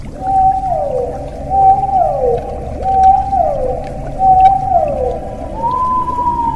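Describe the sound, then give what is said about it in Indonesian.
A blue whale calls repeatedly: about four loud, drawn-out moaning tones that each slide downward, then a final steadier higher note, all over a constant low underwater rumble with no talking. “Dan saat kemarin ia berenang-renang, ia bertemu dengan hewan laut terbesar di dunia. Ia bernama Paus Biru.”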